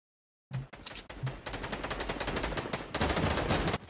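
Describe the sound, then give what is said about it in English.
Rapid, sustained video game gunfire as the player rains down fire: a dense stream of sharp automatic shots rattling continuously for several seconds, growing louder toward the end, with no voices. “I'm straight up raining down fire here.”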